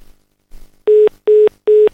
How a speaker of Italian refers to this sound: Pronto? Chi c'è? Pronto? Ah, sta ah, squillando, ok.